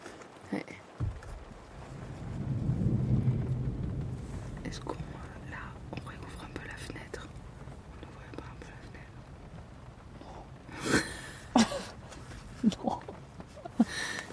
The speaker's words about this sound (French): Parce qu'en vrai, on est dans le nuage. Hein. Ah bah, Là, on est dans le nuage, dans la pluie, dans la grêle, dans l'orage. Regarde autour de nous là.